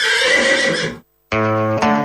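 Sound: horse neighing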